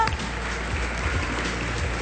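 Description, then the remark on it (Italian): A crowd claps steadily for a couple of seconds, a dense, even patter of many hands with no voices standing out above it. “Grande applauso.”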